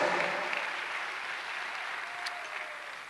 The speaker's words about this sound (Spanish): Denle un aplauso a Dios si le, si le goza saber eso.